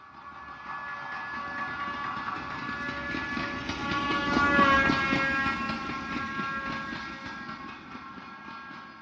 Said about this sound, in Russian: А звучит более высокая нота, когда поезд приближается, и как только поезд проезжает мимо нас, мы слышим, что нота понизилась. Заметили?